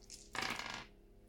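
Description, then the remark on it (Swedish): A short clatter of three dice rolled across a hard tabletop during a board game, a bright rattling burst lasting about half a second before settling, with no voices. “Tre tärningar du. Och tre tärningar du. Okay. Slå så lågt som möjligt.”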